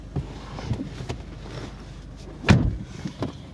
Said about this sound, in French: Et au moment où les portes du collège Henri Barbus s'ouvrent, on se dit, ça fait dix ans.